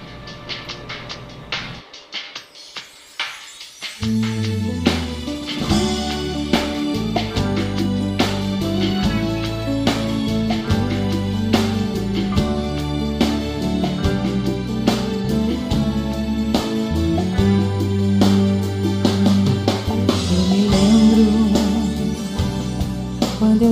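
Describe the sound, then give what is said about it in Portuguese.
After a few quiet seconds, a song kicks in with a steady beat, a strong bass line and sustained melodic notes, playing loudly and continuously with no voices. “Vamos fazer o seguinte: podemos vamos. ouvir ela então agora?”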